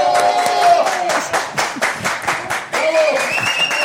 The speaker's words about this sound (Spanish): Ok, hay aplausos fuertes. ¡Bravo!